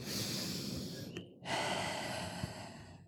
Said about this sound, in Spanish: Sí, entonces respirar profundo, eh, pero sin hiperventilarse, ¿ya? Y mientras uno está respirando con la lengua detrás de los dientes, respirar a través de la nariz, inhalar a través de la nariz y exhalar a través de la boca.